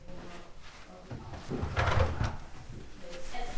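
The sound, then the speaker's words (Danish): A door from a hallway into a child's bedroom is opened, with a short burst of creaking and knocking in the middle against a quiet indoor background. “Når døren åbnes, ser man et børneværelse som alle andre, fyldt med legetøj.”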